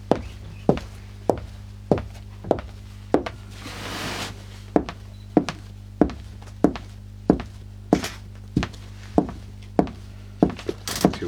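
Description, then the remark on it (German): Steady footsteps of shoes on a hard floor, about two dull thuds per second, fairly loud, with a brief soft shuffling noise in the middle and no talking. “Äh, lass mal die Schuhe an, weil man es mit denen mhm. ich, äh, besser hört.”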